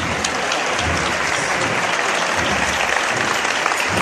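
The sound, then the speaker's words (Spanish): A dense, sustained burst of applause from a large outdoor crowd on calle de Pureza in the Triana neighbourhood during a Holy Week procession, as the float is lowered after a manoeuvre; steady and loud throughout with no pauses, a few faint voices mixed into the clapping. “Así suena la calle de Pureza a esta hora en el barrio de Triana.”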